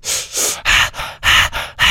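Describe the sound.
A voice imitates the rhythmic breathwork breathing from a song: about seven quick, forceful breaths alternating in and out, loud, with no talking.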